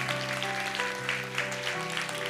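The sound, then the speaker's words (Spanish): A crowd claps steadily and densely, giving applause to the Lord during a worship gathering, a sustained wash from many hands with held keyboard or organ chords droning underneath. “Dale un fuerte aplauso al Señor.”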